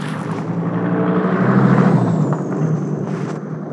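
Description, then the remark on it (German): Broad, steady rumble of vehicle traffic driving past outside, swelling and easing, with a low engine drone and a thin whine sliding downward as cars pass; no one speaks over it. “Es tut mir echt leid, ich, normalerweise fahren hier nie so viele Autos längst.”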